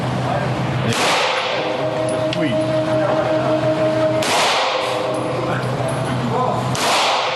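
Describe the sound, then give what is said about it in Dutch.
Three loud, sharp gunshots fired at a shooting range ring out a few seconds apart, each cracking sharply and then fading, with people talking quietly in the background between shots. “Het is gewoon het, het, is het gevoel dat je echt met kogels en, en dat maakt zoveel lawaai.”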